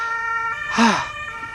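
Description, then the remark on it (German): An ambulance siren wails steadily, its sustained tones running through the whole moment, with a brief louder swell partway through. “Das wäre mal plötzlich Krankenwagen.”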